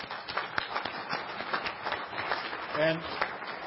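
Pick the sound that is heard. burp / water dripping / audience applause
audience applause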